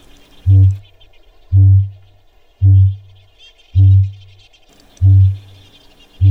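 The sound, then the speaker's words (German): A series of deep, resonant booms from a male kakapo's mating call, a call audible up to seven kilometres away, repeats at a steady pace, about one per second, loud and low-pitched, with faint insect or bird chirping in the background between them. “warum Radiokünstler ist bis sieben Kilometer weit zu hören, dieses Geräusch hier”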